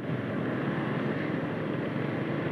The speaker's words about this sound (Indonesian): Baru sempat emang akhir-akhir ini bikin podcast cerita di atas motor.